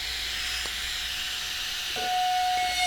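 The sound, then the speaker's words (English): A rotary carver run on high with a fillet point burr drills into a gourd, cutting out a leaf along the outline design, with a steady, breathy hiss. Near the end a thin, high-pitched whine rises over it and holds. No one speaks. “So how you want to use this fillet point, you just want to go in, drill in, and follow the line.”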